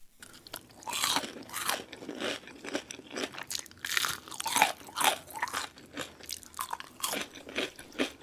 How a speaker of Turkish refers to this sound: Şu anda bir hamburger gibi bir şey yiyor. Bak bu ASMR'nin örneklerinden biri.